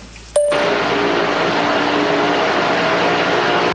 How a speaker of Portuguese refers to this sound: Isso que vocês estão ouvindo aí é um novo tipo de serra ou aparelho elétrico barulhento que está brilhantando a minha tarde de quarta-feira. Não, hoje é terça.